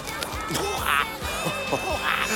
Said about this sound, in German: Ein sprechender Papagei. Das ist ja spektakulär. Ganz wunderbar.